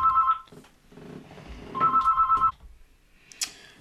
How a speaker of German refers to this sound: Ja, das äh, Klingeln im Hintergrund eben mussten wir mal kurz unterbrechen. Kleine Pause. Da kam noch hier glatt mal ein Anruf auf Festnetz rein. Ist ja auch nochmal Wahnsinn, dass man auf Festnetz angerufen wird.